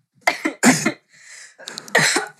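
A person coughs several times in quick, harsh bursts close to the microphone, pauses with a soft rasping breath, then coughs again in another rough cluster. No one speaks.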